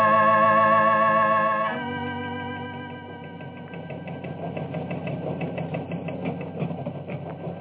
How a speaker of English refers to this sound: I listen to the teletype and watch reports of what's going on across the world.